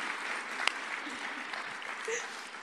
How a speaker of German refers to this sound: Gib ihr nochmal einen, einen kräftigen Applaus.